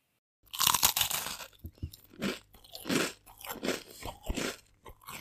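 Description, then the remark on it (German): A short jingle for a "Snack der Woche" segment, built from loud, crisp crunching snack sounds: a burst of rapid crunches, then a steady rhythm of chomping bites over a low, steady hum, with no voices. “Eventuell habe ich schon einen kleinen Jingle vorbereitet.”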